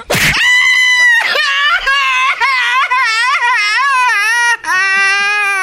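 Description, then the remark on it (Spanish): A loud voice screams and wails continuously, the pitch wavering up and down in sobbing swells with brief catches for breath, starting with a sharp burst. “Ah, no, no, ah, pues estoy gritando, me llorando.”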